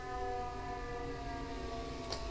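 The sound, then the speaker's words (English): An ambulance siren wails steadily as the ambulance drives up the road, its sustained tones distorted and muffled over a low rumbling background, with no one speaking. “Ambulance going up the road.”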